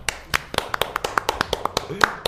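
During a livestream, a single person claps about a dozen times in a quick, steady rhythm, each clap sharp, bright and fairly loud, with brief gaps between them.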